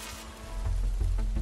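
Steady, endless acid rain hisses continuously on the roof of the Bradbury Building in Los Angeles, over a low, rumbling background that swells midway, with faint sharper patters now and then and no voices.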